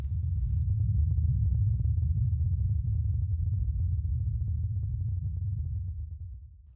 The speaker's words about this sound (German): So klingt es auf dem Mars. Diese Töne hat der neueste Mars-Roboter Perseverance mit einem Mikrofon auf dem Mars aufgenommen und zur Erde geschickt. Das Rumpeln stammt vom Wind auf dem Mars und es klingt deshalb so tief,